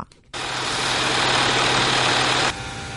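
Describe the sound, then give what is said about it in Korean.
Sock knitting machines in a textile mill in North Carolina, in the southern United States, run with a loud, steady mechanical whir and low hum as spools of yarn turn and socks are made, starting abruptly and cutting off after about two seconds into quieter background noise. “미 남부 노스캐롤라이나 주의 한 방직 공장. 실타래가 돌아가며 양말이 만들어지고 있습니다.”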